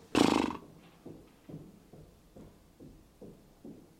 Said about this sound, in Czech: Teď jste slyšeli podpadky vedle našeho našeho studia. Jestli jste to slyšeli, možná ne, možná to mikrofony berou možná ne.